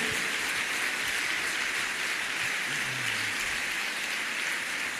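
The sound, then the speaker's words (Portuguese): A church audience applauds to glorify the Lord, a dense, continuous wash of many hands clapping at even loudness for the whole five seconds, with no voices over it. “Você pode aplaudir a Ele e glorificar o nome do Senhor?”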